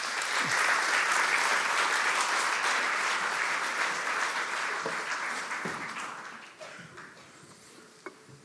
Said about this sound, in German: Ein Applaus für die Familie.